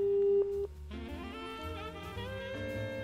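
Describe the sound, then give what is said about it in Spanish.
A steady, loud telephone line tone hums for about half a second, then cuts off and gives way to a brighter, wavering tonal sound as a telephone dials to place a call, carrying on to the end. “Pero para pues, ver, aquí, aquí tenemos un teléfono discando.”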